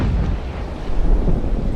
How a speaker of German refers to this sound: Ein mächtiger Kavum. Ein Baum war umgestürzt, Frost und Schnee hatten ihn gefällt.